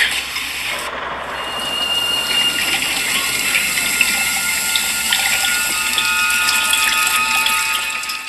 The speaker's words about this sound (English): All right, so our second breakout film, uh, a more recent creature feature, is The Host from 2006. It opens with an American mortician ordering a Korean man to dump formaldehyde down the drain, like a lot of formaldehyde.